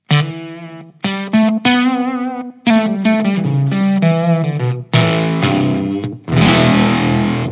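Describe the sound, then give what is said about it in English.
An electric guitar played through an amp head on its vintage setting with the gain practically all the way down, a series of gritty, slightly overdriven notes and chords with brief pauses, finishing on a loud, ringing strummed chord. “So this is the vintage setting.”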